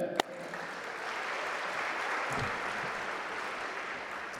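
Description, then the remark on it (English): A crowd claps steadily for several seconds for the winners among students who wrote essays and submitted artwork, a dense, sustained patter of many hands that holds at an even level throughout, with no voices standing out. “And also, congratulations, felicidades, to all the students who wrote essays and submitted artwork, and a special congratulations to all of the winners. Let's hear it for them.”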